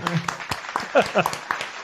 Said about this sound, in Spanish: Un aplauso. Bravo. No, ese no es el aplauso. Es este.